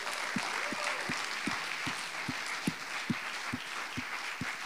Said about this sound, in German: alle, die, die an diesem Umbau äh, beteiligt waren und wirklich Kraft und, und, und, Zeit aufgewendet haben, lass uns, lasst uns denen mal einen fetten Applaus geben.